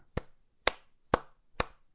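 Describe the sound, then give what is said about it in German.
Four slow, evenly spaced hand claps, an applause sound effect added in post-production, each a sharp crisp smack with a short tail, with quiet pauses between them and no voices. “Ich hoffe, ich habe jetzt hier in der Post irgendwo noch größeren Applaus eingefügt.”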